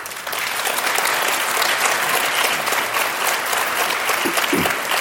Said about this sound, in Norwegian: Jeg syns det er en applaus.